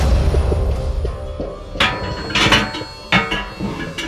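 Loud, irregular bangs and knocks from water pipes, several sharp hits over a low, continuous rumble, with no one talking.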